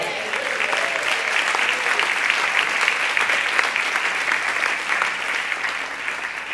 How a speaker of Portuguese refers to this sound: E se tem alguém que acredita nisso, diga glória a Deus e dê um aplauso ao Senhor.